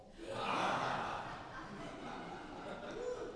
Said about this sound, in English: I want to see if we can gasp so loud that the mics pick it up and people at home can hear it.